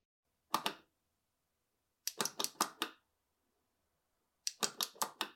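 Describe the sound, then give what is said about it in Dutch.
Sharp plastic clicks from setting up the new IKEA Dirigeria smart home hub by pressing the light switch in a particular way: a quick pair, then two rapid bursts of about five clicks each, crisp and fairly loud with silence between. “Ja, dat was het geluid van het instellen van de nieuwe Dirigeria Smart Home Hub van IKEA.”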